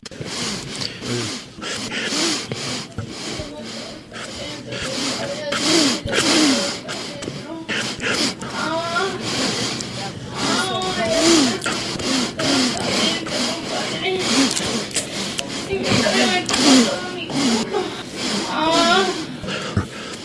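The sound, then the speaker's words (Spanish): A compilation of Trump's sniffling: rapid, repeated nasal sniffles, one after another in quick succession, fairly loud, with brief fragments of a man's voice between some of them. “Tengo todo, todos los sniffling”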